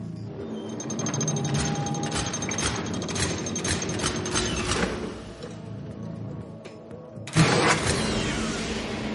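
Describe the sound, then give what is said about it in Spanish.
A bank vault door lock being turned very slowly by the character Moscú: a steady metallic grinding with a rapid series of ratcheting clicks, a brief lull, then a sharp heavy clunk followed by more rough mechanical rattling. “Muy despacio, Moscú gira el cierre de la cámara.”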